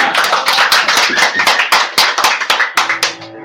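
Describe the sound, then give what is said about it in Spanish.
A burst of audience applause from the public outside the booth during a live acoustic session at Radio Maravillas, many hands clapping in a dense, crackling patter that stays loud and steady before thinning out toward the end, with no voices over it. “Ya tenemos público afuera de la camina aplauso.”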